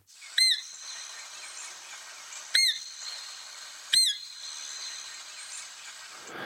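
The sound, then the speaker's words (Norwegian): Three short, high-pitched squeaking calls blown on a whistle imitate a roe deer fawn seeking contact, each a quick rising-falling peep spaced a second or two apart over a quiet, slightly hissy background. “For eksempel så kan du prøve å imitere en killing, en rådyrkilling, som søker kontakt.”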